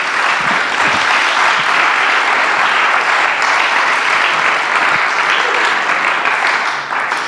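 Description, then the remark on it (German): An audience claps for two guests at a talk, steadily and loudly for several seconds, a dense, even wash of many hands with no voices standing out, tapering slightly at the very end. “Und ich denke, wir können Ihnen großen Applaus geben.”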